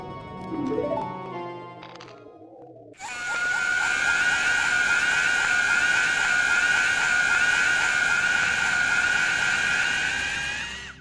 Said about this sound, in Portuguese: flashes e de repente grito, grito de criança. O editor vai colocar uma aí pra você você.